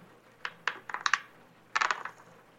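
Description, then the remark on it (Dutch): A dice-rolling sound effect from an app rolling two dice: a quick series of sharp, hard clicks and clatters, then a denser burst of rattling near the end, moderate in volume, with no talking. “je hebt twee dobbelstenen die je gebruikt om op alle 40 vragen uit te kunnen komen”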